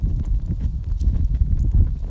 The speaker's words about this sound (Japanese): この焚き火の音でも聞きながらね火がつきそうでなぐらい近づいてますけども聞こえてるかな、うん、